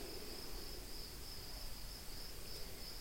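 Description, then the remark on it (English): Steady, continuous insect chirping outdoors, a high-pitched trill that holds evenly throughout, with a low ambient rumble underneath and no voices. “So we play with the practices of receiving sounds, which here thankfully have been mostly creature sounds insects, frogs, children.”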